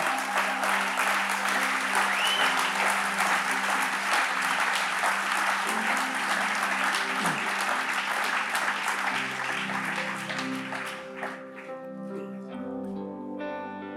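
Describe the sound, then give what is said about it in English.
A church audience claps steadily during an altar call, as people are invited to come down to the front for prayer, in a loud, dense wash of applause over sustained keyboard chords; the clapping fades out near the end, leaving the music playing alone. “We'll keep clapping.”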